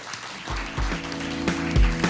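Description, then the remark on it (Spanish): Sustained audience applause, a dense, steady crackle of many hands, mixed with low thumping beats and sustained musical tones underneath for about two seconds. “Nos despedimos, dale un fuerte aplauso a todos, las naciones.”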